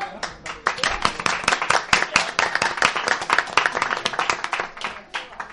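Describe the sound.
An audience bursts into steady applause for the winner holding number 90 in a draw, a dense crackle of many hands clapping at once that holds at a fairly loud level for several seconds, with a hint of voices mixed in.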